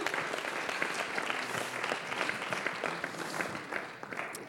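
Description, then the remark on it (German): A church audience applauds steadily for a man, many hands clapping in a dense, even wash of sound that holds at a constant level without pauses or cheers. “Und ich finde es richtig mutig, was du tust und ich finde, wir sollten ihm einmal einen Applaus geben.”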